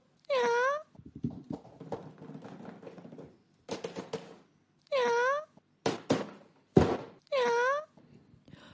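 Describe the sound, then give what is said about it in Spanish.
A cat lets out three loud, drawn-out wailing meows, spread across several seconds, with thumps, knocks and scuffling noises in between. “Y que conste que esta es la primera vez que me preocupo por el destino de un gato.”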